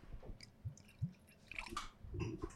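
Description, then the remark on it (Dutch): Thick, cloudy Kyo Haru Nigori sake is poured from a green bottle into a glass, with soft glugs and small splashy, wet bursts coming unevenly. The sound is fairly quiet, and no one speaks. “Maar je ziet, hè, als ik hem inschenk, dat hij een beetje lijkt al wat, wat dikker te zijn.”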